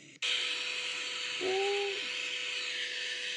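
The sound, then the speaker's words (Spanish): A vacuum cleaner recording played from a white-noise app switches on abruptly and runs with a steady, loud whooshing roar and a faint motor hum, briefly rising into a higher whine partway through. No one speaks. “Mira, aspiradora.”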